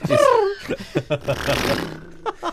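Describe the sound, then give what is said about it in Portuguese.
A person imitates a diesel car engine with their voice: a loud growling roar that dips in pitch, then a string of rough sputtering bursts and a raspy rumbling stretch. “Faz lá o carro, do, o carro, aquele o carro com é que é?”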